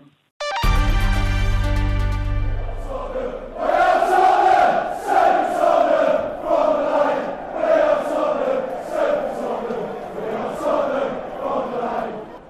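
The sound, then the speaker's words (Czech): A sustained, steady musical tone opens, then a large crowd of Tottenham Hotspur football fans takes up a loud, rolling stadium chant that swells and dips in rhythmic waves. “Tohle, co slyšíte, je chorál z Tottenham Hotspur”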